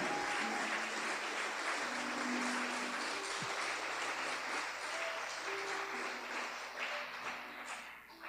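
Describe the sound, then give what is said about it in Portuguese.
An audience applauds the Lord joyfully in a sustained, dense wave of clapping, steady and loud throughout, with faint voices mixed underneath. “Aplauda com alegria.”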